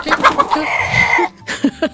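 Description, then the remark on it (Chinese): A person imitates a hen clucking: a run of quick, choppy clucks, then a drawn-out, steady squawk, a brief silence, and two or three more short clucks. “有人说，为什么会是母鸡不是公鸡？”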